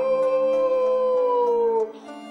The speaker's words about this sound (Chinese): 响彻山林的吼叫声就在他背后，扑打巨大翅膀发出的怪异尖锐的声响就在他身后。